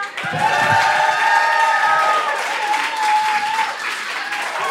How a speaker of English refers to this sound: Guys, I'm going to bring up next comic right on, so let's get clapping, whipping, and cheering as I bring on the brilliant